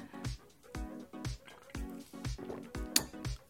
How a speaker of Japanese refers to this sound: あ、あの、ガラナがありました。えー、北海道産のガラナ。ちょっとこれ飲んでみますね。